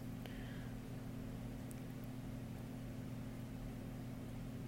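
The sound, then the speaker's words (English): A steady, low mechanical hum of an air conditioner runs continuously throughout, with strong bass tones and a faint background hiss, no speech present. “Maybe, like right now, my air conditioner is running. I can hear that.”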